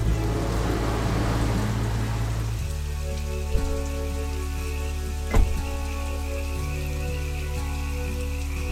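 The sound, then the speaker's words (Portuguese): Steady rain falls at night in Senador Pompeu, in the sertão, in a continuous hiss, with a constant low mechanical hum running beneath it and a couple of brief sharp knocks partway through. “pousada ruim, fome, rãs, chuva.”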